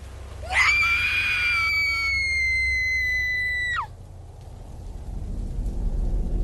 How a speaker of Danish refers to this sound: Hendes blik følger blodsporet op ad flagstangen, og synet, der møder hende, får hende til at udstøde et øredøvende skrig.